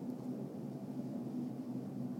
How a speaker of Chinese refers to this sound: 如果我录音的时候一直有飞机飞过去，这段我不知道会不会剪掉，应该是会了。等飞机飞完，我再继续说。